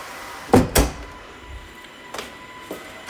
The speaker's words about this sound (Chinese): 啊，行，你关门吧。